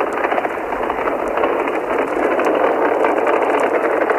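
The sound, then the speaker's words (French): A Saturn V rocket launch in December 1968, heard from the press stand as it shakes under the shock wave: a loud, unbroken wall of dense, crackling noise that holds steady for several seconds, with no voices over it. “La tribune de presse tremble sous l'onde de choc du départ de la Saturne 5.”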